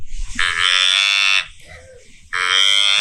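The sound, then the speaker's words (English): A doe deer bleats twice, each call a loud, nasal, buzzy tone about a second long, separated by a short pause; the second bleat is cut off at the end. “Here's a doe bleat.”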